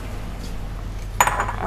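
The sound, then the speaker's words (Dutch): Dishes clink briefly as a small bowl is taken out to put crème fraîche in, a short cluster of bright ceramic knocks after a stretch of low steady background hum. “Ik ga gewoon een bordje pakken, een kommetje, en dan doe ik dat erin.”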